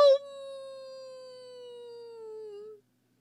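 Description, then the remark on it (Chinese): A voice imitates a monster roar in a rainforest story: one long, tonal, howl-like cry held steadily for nearly three seconds, its pitch sliding slightly downward before cutting off, heard alone with no other sounds. “等又一声吼叫传来时，嗷！”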